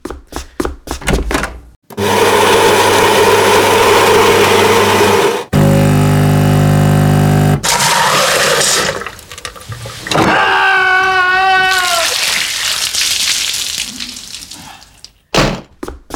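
A coffee machine grinds loudly, its motor dropping to a strained, droning hum as if a bean is stuck, then clicks and pumps water through with a whirring, hissing brew, with no talking.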